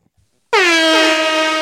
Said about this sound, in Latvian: Tā nu, es tā parasti viņam, neiz... viņam parasti ieslēdzu sampleri, un tur viņš vienkārši spaida visādus tur vai, vai arī debesu taurus, kurus mēs ar šeit spaidām.